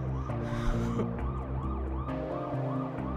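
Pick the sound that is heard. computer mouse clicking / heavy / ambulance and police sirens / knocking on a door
ambulance and police sirens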